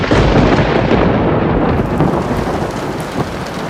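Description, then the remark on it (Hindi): Heavy rain pours down in a dense, steady roar, with a deep rumble of thunder rolling underneath during the first half before easing into continuous downpour. No voices. “कितनी तेज बारिश हो रही है”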